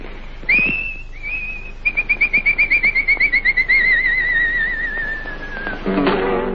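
Clear, high-pitched human whistling from a tango singer: a rising swoop, then a quick fluttering trill that stretches into a long, slowly falling tone, ending in a short burst of noise.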